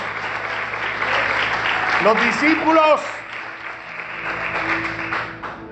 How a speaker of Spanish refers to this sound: Ahora dale un aplauso el mejor aplauso que haya podido darle al Rey de Reyes y Señor de Señores.